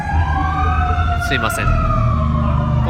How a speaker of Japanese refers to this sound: ちょっと今すごい消防車が走ってるんですが